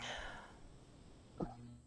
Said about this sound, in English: Excuse me. Bless you.